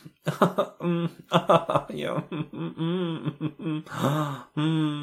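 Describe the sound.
A fairly loud voice imitates moaning and gasping, mixing quick sharp breaths with drawn-out, wavering moans in an uneven series, with no actual words spoken.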